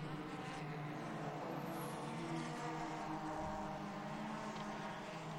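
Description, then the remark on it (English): Steady engine roar from race cars rolling past at moderate, restrained speed during a safety-car caution period, a continuous drone with no sharp revving, heard from trackside with no voices. “the Cars are uh, coming through the heel of the”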